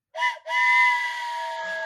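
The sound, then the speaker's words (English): A steam train whistle blows loud: a short toot, a brief gap, then one long sustained blast with a breathy, hissing edge. No voices. “The sound of the train whistle means it's time to play Walt Disney World Insider Free Association”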